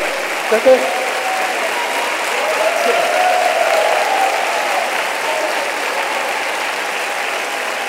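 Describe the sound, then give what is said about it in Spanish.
An audience applauds together, a steady wash of clapping that fills the space for several seconds, with a few sharper claps near the start and faint voices mixed in. “No todos están aplaudiendo, ¿ven?”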